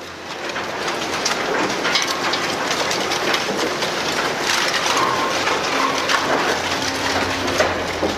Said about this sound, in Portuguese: vocês ouvem um barulho similar a esse, a esse som. É como se uma quantidade muito grande de metal estivesse sendo triturada ao mesmo tempo. Um barulho muito alto? Bem alto.